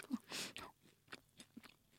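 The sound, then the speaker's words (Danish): Chewing of a soft bite of a tall cake, with a few moist mouth sounds and small crunchy clicks spread unevenly over two seconds, quiet and without talking. “Vi smager.”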